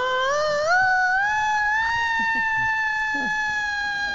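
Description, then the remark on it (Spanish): An ambulance siren wails steadily and loudly throughout, its rich tone climbing slowly in pitch, with faint murmurs of voices underneath. It is played as the alarm telling people to wash their hands. “Va a traer Esa es la alarma para que se laven las manos.”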